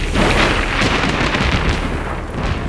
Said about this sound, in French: Le ciel noir assombrit le paysage, qui par flash devient tout blanc au rythme des éclairs. Il continue sa route à faible allure quand la foudre frappe un arbre sur le bas-côté.